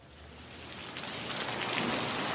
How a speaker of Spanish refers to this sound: De repente, comienza a llover.